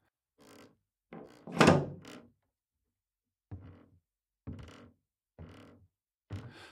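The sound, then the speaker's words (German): A door bolt above is slowly slid and locked, a series of wooden and metal clunks and scrapes spaced out over several seconds, with no talking. “Jetzt hörte Magdalena deutlich, wie er über ihr den Riegel der Tür langsam verschloss.”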